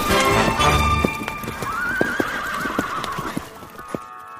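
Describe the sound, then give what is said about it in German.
A horse whinnies with a long, wavering neigh while hooves clip-clop in a steady, sharp rhythm, loud and clear with no voices. “Anders als wir Menschen kann unser Tier schon laufen, wenn es auf die Welt kommt. Und das, obwohl es nur einen Zeh an jedem Fuß hat.”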